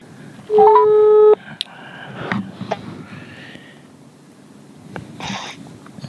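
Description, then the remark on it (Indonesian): A telephone ringback tone sounds once as a call is placed, loud, a steady electronic buzz lasting about a second, followed by quieter rustling and faint voices in the background. “itu tadi dari Aka dan gue, gue akan telepon lagi”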